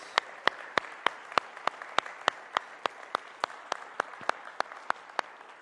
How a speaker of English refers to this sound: The logistics that went into that by Pastor Matt and his team, can we give them a huge, well deserved round of applause?